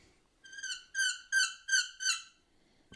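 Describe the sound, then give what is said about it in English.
A small turkey box call makes a young hen's kee-kee: five high, squeaky whistled notes in an even, slightly rising series, clear, with no voices. “Because it it's, it's it makes the little kiki, which is the, one of the hardest sounds to make on a box call, but”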